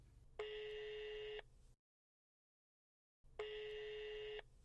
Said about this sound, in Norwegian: Skal vi prøve å ringe han?